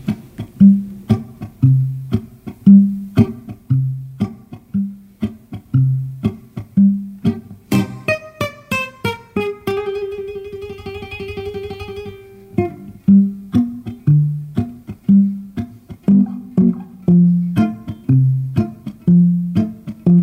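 Plucked acoustic guitar plays a steady, lilting fado accompaniment with a rhythmic bass pattern and bright upper notes, briefly ringing into a sustained chord midway; no voice is heard.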